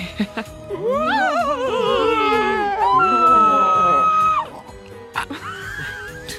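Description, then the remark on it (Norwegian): A person lets out a long, loud, wavering scream lasting a few seconds, rising and falling in pitch before breaking off, followed by a short shriek. “Hvem var det som skrek? Det var meg.”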